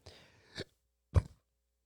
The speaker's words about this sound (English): so sorry, I burped into the microphone, and I, I wish that I had not done that, but I'm probably not gonna edit it out.